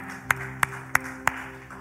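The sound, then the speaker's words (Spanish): Four sharp hand claps at a steady, even pace, each crisp and brief, over a low constant hum with no talking, given as applause to the King of Kings and Lord of Lords. “Si alguien está de acuerdo, escriba amén allí, por favor, y dale un fuerte aplauso al Rey de Reyes y Señor de Señores.”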